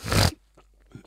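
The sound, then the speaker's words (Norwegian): A single sharp, loud snort through the nose, a brief rough burst of air that cuts off quickly and is followed by faint breathy rustles. “Jeg har mye sånn eh, ja, jeg, vet ikke hva det der heter, men er det snorkle?”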